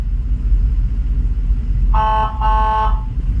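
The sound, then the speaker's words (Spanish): Two short, loud blasts of an ambulance emergency tone, steady and brassy, sound back to back over a continuous low engine rumble from inside the vehicle. “Es considerado un tono de emergencia.”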